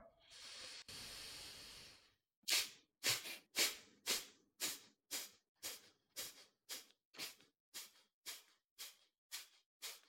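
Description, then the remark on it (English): During a breathing exercise, a long, hissing breath is followed by a quick, steady series of about fifteen forceful exhalations through the nose or mouth, loud, each a short breathy burst with no talking. “And just chill in the space of mind that you create through those 15 exhalations.”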